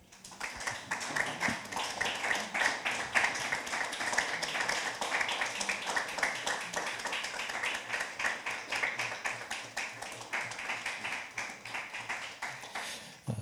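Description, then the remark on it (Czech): Audience applause at the close of a discussion event, thanking the guest, fills the whole stretch, a dense, steady patter of many hands clapping at a fairly even loudness with no talk over it. “Prosím o potlesk.”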